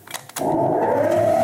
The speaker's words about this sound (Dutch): Dit is het geluid van mijn compressor.